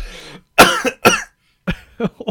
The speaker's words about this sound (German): oh, oh, ich habe mich gerade so verschluckt.